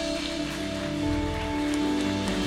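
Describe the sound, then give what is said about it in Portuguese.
Steady, dense applause from a church audience applauding the Lord, a continuous crackling patter of many hands clapping at once, with a sustained keyboard chord humming underneath throughout. “Aplauda ao Senhor, Deus desse lugar.”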